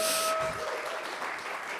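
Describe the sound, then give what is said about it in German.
A short burst of audience applause, dense and steady, many hands clapping at once from a group, continuing evenly for a couple of seconds with no voices standing out. “Ihr achtet auf die wunderschöne Applaus”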